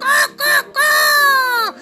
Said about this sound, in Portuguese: as cabras começam a fazer bé, os bois começam a mugir, má, e os cachorros começam a latir, as galinhas